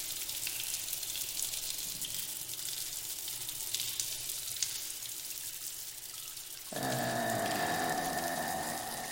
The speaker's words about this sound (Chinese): 忽然，我听到了滴水的声音，在这寂静而空旷的走廊之中，突兀的回荡着。那节奏越来越快，渐渐的变成水流的声音了。